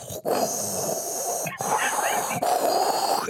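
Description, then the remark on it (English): Someone vocally imitates the wheezing hiss of an old coffee machine as heard in old coffee shops: a raspy, breathy rush held steady, broken by two brief catches into three stretches. “I think they used to make that noise as well uh, in the old coffee shops. Just like an old boy going.”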